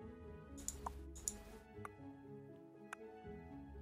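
Sparse, irregular drips of water fall one by one in a long cave passage, about five clear plinks over a few seconds, ringing and echoing faintly over a steady low droning hum.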